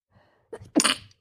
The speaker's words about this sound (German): ich muss niesen, hä?